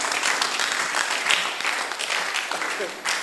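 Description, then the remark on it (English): A crowd claps steadily for about three seconds, a dense, even patter of many hands that stays loud throughout, with a few sharper claps standing out. “The women are not clapping.”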